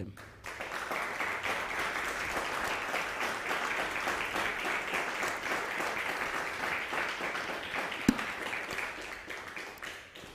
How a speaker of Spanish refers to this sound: Dale un fuerte aplauso a